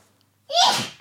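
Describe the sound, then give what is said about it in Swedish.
A single sharp sneeze bursts out after a moment of near silence, loud, with a bright explosive burst that trails off quickly. “prosit,”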